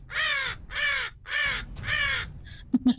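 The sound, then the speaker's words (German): Four loud, harsh crow caws made by a person imitating a crow, in a steady rhythm, each about half a second long, followed by a couple of brief clicks and knocks at the end. “ähm, also, äh, vor euch landet eine Krähe mit echt tollen Sounds.”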